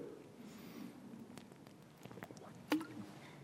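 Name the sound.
drinking water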